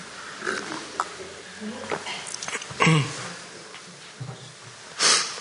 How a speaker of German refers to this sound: Oh ja, danke. Eine Sekunde, ich trinke gerade mal einen Schluck.